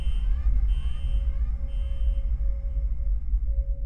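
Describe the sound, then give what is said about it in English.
A ship's electronic alarm, an all-hands bulletin for a detected SOS, sounds in steady tones that cut in and out over a heavy, constant low rumble of the main engines, with no voices present. “When I got to the bridge, I disabled the alarm and checked the sitrep.”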